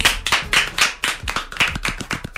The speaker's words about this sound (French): Moi, je propose que vous vous applaudissiez now.